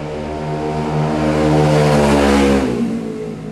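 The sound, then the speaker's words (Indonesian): A loud motorcycle engine in an industrial area drones with a steady, buzzing hum, swelling slightly as it passes and then beginning to fade near the end. No one speaks. “motor bangke motor bangke maaf ya kalau misalnya keganggu gitu namanya juga industrial industrial”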